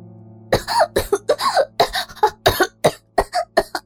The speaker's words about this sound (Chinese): 美芬剧烈咳嗽，脸被憋得红得发紫，大口的喘着粗气。